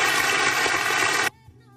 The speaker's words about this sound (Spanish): muy buenas tardes, muchísimas gracias, un aplauso para vos que realmente te lo mereces.